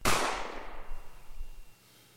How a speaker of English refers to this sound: after every answer, hit the gunshots. Let's start with the BX.